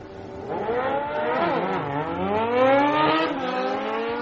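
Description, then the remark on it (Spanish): A high-pitched Formula 1 race car engine revs loudly and continuously, its whining tone climbing and dipping through several gear-like sweeps, steady for a few seconds with no voices. “Sí, suena un poquito a Fórmula 1, no sé yo.”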